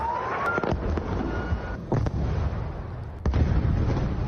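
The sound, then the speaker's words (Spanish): Heavy explosions from Israeli airstrikes on residential buildings in Khan Younis, Gaza, boom out one after another over a dense, rumbling background, with sharp blasts landing around every second or so and a thick low roar lingering between them. “Como ha ocurrido tantas veces, el sonido de las bombas le sigue el de los habitantes de Gaza retirando escombros y buscando supervivientes.”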